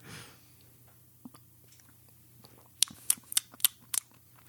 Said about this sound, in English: Since this is an IPA, I know this isn't technically the rules of chugging or shotgunning, but since this is an IPA, I am going to take a sip to accommodate my palate just to prepare what I'm getting ready to experience.